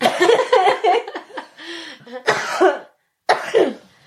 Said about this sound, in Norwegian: Bare hoste.